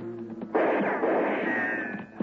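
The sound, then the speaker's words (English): A single loud gunshot bursts in abruptly after a faint low hum, followed by a long, rough, noisy tail that lingers for more than a second before fading. No one speaks. “Gunshot and come from my left, and we're still coming, and from someplace and somebody I couldn't see”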